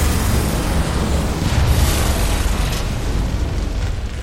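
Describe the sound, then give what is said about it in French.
A building explosion in a film scene roars in a dense, loud wall of rumbling noise, heavy in the low end, sustained for several seconds and easing only slightly at the close. No voices are heard. “tout va sauter ici”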